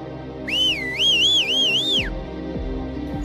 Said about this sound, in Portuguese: Vocês ouvem um apito.